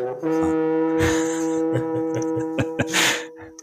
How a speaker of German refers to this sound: hat noch mal ins Horn geblasen.